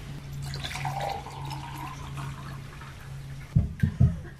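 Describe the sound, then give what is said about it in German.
Fresh water pours steadily from a jug into a glass for a few seconds, a continuous trickle, followed by a few soft knocks as the glass or jug is handled. “Das erste Glas, das ich eingieße, soll sein für alle, die sich abmühen, die schaffen und tun.”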